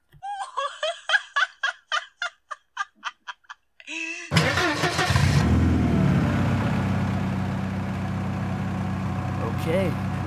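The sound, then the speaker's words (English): A car engine cranks to life abruptly, revs up loudly, then settles into a steady rumble, following a quick run of short, rhythmic gobbling calls. “Well, we all know what that sound means. Let us cruise these suburban streets as I serenade you with another tale of low level true crime.”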